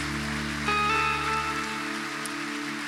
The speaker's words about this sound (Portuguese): Vamos aplaudir o Senhor como igreja mais uma vez, gente, por isso que é o maior milagre de todos.